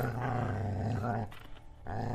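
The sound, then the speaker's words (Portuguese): A deep, rumbling animal-like growl holds steady for over a second, breaks off briefly, then starts up again, loud with no talking over it. “Ele, ele fareja o ar, ele olha para a direção da criatura, embora ele pareça não ter visto, ele parece ter sentido o cheiro. Ele tá rosnando assim.”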